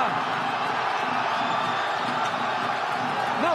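A football crowd of Ljubljana supporters roars in sustained celebration of an 80th-minute equalising goal making it 1-1, a dense, loud wall of cheering and shouting with scattered whoops and whistles rising above it throughout.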